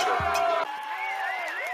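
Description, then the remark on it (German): A brief applause-and-cheering sound effect played on request: crowd cheering with clapping underneath and a whooping voice rising and wavering above it, loud throughout for under two seconds. “Ähm, äh, mach mal hier die, bitte so einen Klatscher, bitte.”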